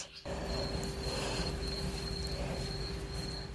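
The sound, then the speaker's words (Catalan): A continuous high, steady trill of insects in spring, like crickets, carries on unbroken over a low rumbling outdoor background, with no voices present. “Els ocells i altres cosetes de la natura tenen els seus sons al màxim i podem gaudir escoltant-los.”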